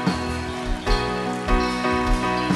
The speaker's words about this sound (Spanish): Fuerte el aplauso al Señor.